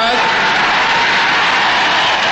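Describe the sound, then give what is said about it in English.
A huge crowd of about 25,000 people roars and cheers in a dense, continuous wash of noise, loud and sustained for a couple of seconds with no single voice standing out. “Okay, 25,000 cheering next”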